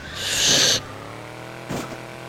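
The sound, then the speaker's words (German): An app notification tone sounds on a mother's smartphone, a bright burst lasting under a second, followed by a softer, brief second blip against quiet background hum. “Also ja, wenn ihr es noch nicht mitbekommen habt, das ist das Handy meiner Mutter.”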